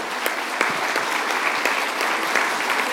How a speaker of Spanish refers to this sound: Sé que aplauden a destiempo, no lo hicieron cuando tuvieron la oportunidad el aplausómetro me registró en el quinto lugar, quinto lugar entre cinco. Bueno, pues así es que ya no se admite ese, ese aplauso.